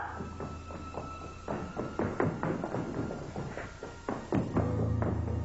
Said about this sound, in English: I would hear footsteps running and assumed that it was her.